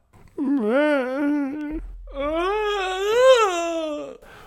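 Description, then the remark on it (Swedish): A voice imitates the strange whimpering scream a girl gives just before being stabbed in a De Palma horror film sequence: two long, wavering wails, the first steady and strained, the second rising and falling, fairly loud with no speech. “Ja, ett konstigt skrik. Ska vi försöka härma det?”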